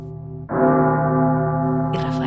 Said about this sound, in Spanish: Las campanas de Sinestaza, en Tineo, tocaron a muerto.